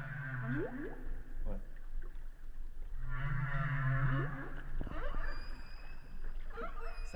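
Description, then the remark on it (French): Underwater whale song recorded by hydrophone, with low moaning tones, rising and falling swoops and higher whistles, carrying through a constant watery rumble; calls repeat in long phrases with no voices present. “C'est-à-dire que tu peux entendre ce son-là et ne pas voir la baleine.”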